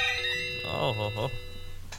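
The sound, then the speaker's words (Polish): A phone rings with a steady, electronic ringtone from a series of landline phones, moderately loud, running through the whole moment while a man briefly exclaims over it. “Y, było zresztą słychać, jak dzwonił mhm. ktoś tu.”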